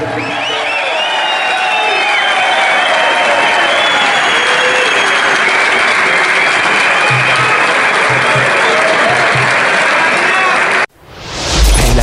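A large crowd at a live concert claps and cheers loudly and steadily, with whoops and whistles rising above the dense applause, before the sound cuts off abruptly near the end.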